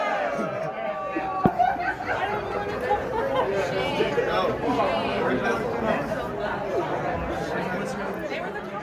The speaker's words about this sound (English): I've got to say, them getting booed by the other passengers genuinely was heartwarming. Um, it restored my faith in humanity a little bit, I, have got to say.